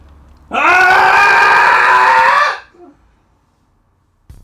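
A single loud, sustained cathartic human scream after a three count, lasting about two seconds, raw and strained with a rising onset, cutting off abruptly into near silence, followed by a faint brief noise.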